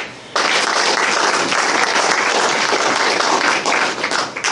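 A crowd bursts into loud, sustained applause after a brief quiet start, many hands clapping densely and continuously for several seconds, close and full, without any talking.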